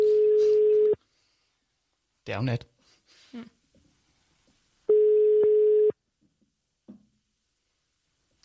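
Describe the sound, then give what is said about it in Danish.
A steady telephone ringback tone sounds twice, each one-second buzz separated by a few seconds of quiet, while someone says a few words briefly in between, as a call is placed to a woman after pressing the buttons. “Trykker på knapperne og ringer.”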